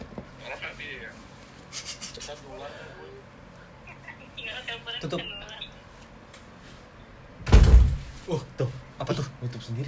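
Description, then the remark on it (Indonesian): A door swings shut by itself with a single loud, heavy thud partway through, cutting into ongoing casual talking from people, followed by a few softer knocks and rustles. “pintu nutup sendiri nutup sendiri cok dibuka lagi lah”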